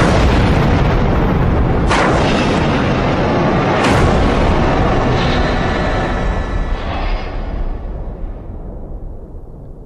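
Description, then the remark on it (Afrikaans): A massive explosion at reactor number 1 of the Fukushima nuclear power station roars in a continuous, loud rumble, punctuated by two sharp blasts a couple of seconds apart, then slowly fades as the roar thins out. “Ses en 20 uur later is daar 'n ontploffing in reaktor nommer 1 by Fukushima, daai Richie kernkragstasie.”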